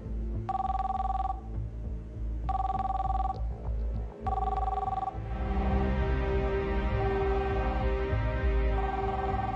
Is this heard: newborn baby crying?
no